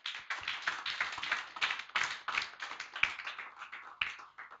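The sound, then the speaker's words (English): An audience claps together for God during a sermon, a dense, steady burst of applause, many hands overlapping for several seconds, loud, with no voices heard. “Give God a clap of it.”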